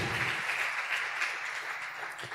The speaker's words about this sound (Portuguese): Quem está feliz eles estarem aqui nos visitando hoje? Vamos dar uma salva de palmas para esse pessoal que está aqui hoje com a gente.